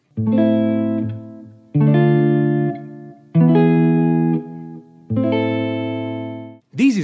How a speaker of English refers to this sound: This gives much more punch to the resolution. Listen here to A minor, D minor, E, A minor.